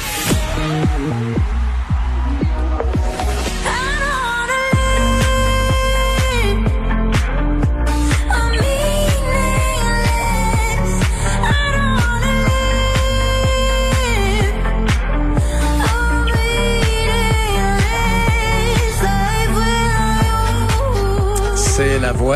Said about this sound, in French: qu'on entend chanter ses propres paroles d'un album fantastique